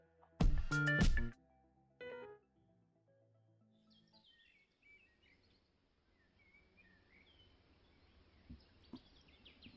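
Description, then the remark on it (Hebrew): Faint, scattered bird chirps and twitters drift in over quiet outdoor ambience, after a brief loud tonal burst at the start. “הציפורים מצייצות, העלים מתנפנפים, והצמחייה צומחת.”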